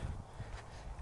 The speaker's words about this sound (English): Yeah, you might hear the noise in the background, the leaves crackling under my feet.